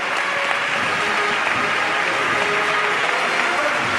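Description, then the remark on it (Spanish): Sustained applause from a large crowd inside the parish church of San Bernardo as the Cristo de la Salud image returns, a dense, reverberant, steady wash of clapping with a few faint voices mixed in, continuing without pause throughout. “El aplauso también en el interior.”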